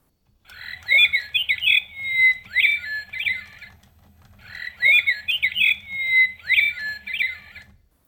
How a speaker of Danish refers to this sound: Og men den rigtige nattergal, den har jo ingen turnus, hvorimod den kunstige har takt og rytme. Og men den er utrolig takfast og ganske efter min skole.